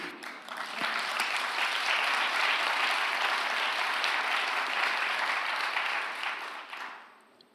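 An audience breaks into dense, steady applause, many hands clapping together in a bright, even wash for several seconds before it thins out and fades away at the end.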